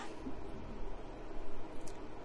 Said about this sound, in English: Sorry if it's distracting. I have a heater on in so that's what that white noise is in the background. Hopefully it's not too loud.